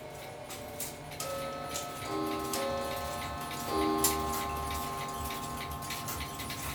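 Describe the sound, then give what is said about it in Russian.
Mechanical (non-quartz) clocks in a clock restoration workshop tick steadily with regular crisp beats, while sustained ringing chime-like tones sound several times over the ticking. No one speaks. “Зато вы услышите, как оно скрипит, звенит и тикает.”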